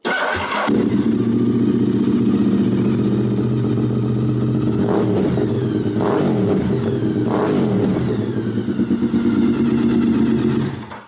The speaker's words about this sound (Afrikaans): Hierdie ene 22000 km op totaal oorspronklik maar ek moet vir julle laat hoor hoe hy klink. 'n V-toon met hierdie pipe op klink natuurlik so.